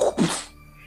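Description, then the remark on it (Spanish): A voice imitates a sudden gas flame flaring up from a stove or boiler: a short, breathy two-part whoosh that bursts loudly, then fades out within half a second. “¿Has escuchado un flamazo de. de, de, de Del estufa, güey. O de boiler, así como.”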